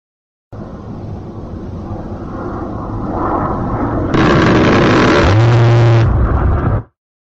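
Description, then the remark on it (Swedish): The rotary cannon of an A-10 aircraft fires a loud, continuous buzzing burst at a very high rate of fire, a rapid roar rather than separate shots. It cuts in over a steadily building jet-like rumble and lasts a couple of seconds before the sound stops abruptly. “Det här är inte frågan om något ratatatata utan det är ju som vi hör ett bzzzt för att det är så fruktansvärd hög eh, eldgivningshastighet.”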